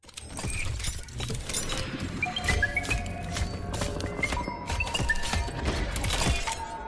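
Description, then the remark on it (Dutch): The robot from the trailer of the new Metroid game Dread for the Switch clanks along with heavy metallic footfalls and clatter, threaded with short electronic whirs and tones, loud for several seconds with no talking. “Ja, dat was het geluid van de robot uit de trailer van de nieuwe Metroid game Dread, die later dit jaar verschijnt voor de Switch.”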